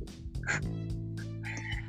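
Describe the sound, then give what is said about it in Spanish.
A rooster crows in a drawn-out, strained call with a harsh, buzzy tone, fairly loud, heard during a virtual class, and no voices can be heard. “Si uno escucha los, los gallos, a una compañera una vez se, escucharon gallos,”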